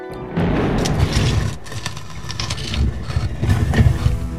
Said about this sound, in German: Es hat funktioniert. Die Tür zur Schatzkammer geht auf.